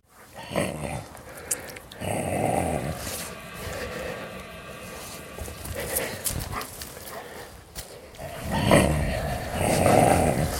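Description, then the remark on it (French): Several dogs growl and snarl over four steaks of food, a low rumbling that runs throughout with rougher, louder outbursts near the start and again toward the end. “Il n'y avait pas assez de quatre steaks je voulais leur caresser la joue pour leur dire que demain il y aurait autant de steaks que de chiens.”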